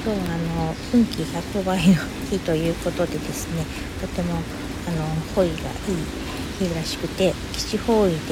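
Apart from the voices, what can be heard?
rain falling outside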